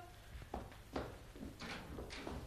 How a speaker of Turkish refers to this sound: kapıyı aç kızım. Açıyorum.